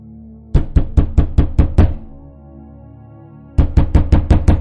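Loud, rapid pounding on the door of a room by a man outside it: a quick run of about seven hard knocks, a short pause, then another burst of six, each blow with a deep, booming thud.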